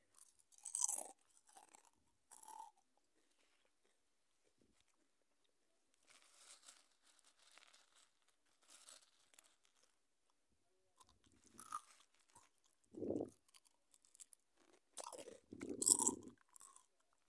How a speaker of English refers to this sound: So today we're going to be talking while chewing some crisps.